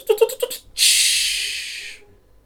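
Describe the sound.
A voice mimics a train: four quick, rhythmic chugging puffs, then a long, loud, steady hiss like escaping steam that fades out after about a second.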